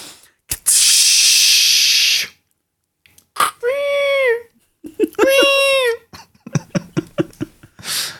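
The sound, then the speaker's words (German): A voice imitates the transporter sound from Star Trek's Enterprise: a long breathy hiss, then two high, wavering whistled tones that swoop and shimmer, ending in a quick run of soft clicking pops. “Ja, und das jetzt war, das, das, war, das war lange Zeit ein, ein Klingelton von mir, wenn ich Nachrichten bekommen habe, dieser äh, Transponder äh, von, von Enterprise.”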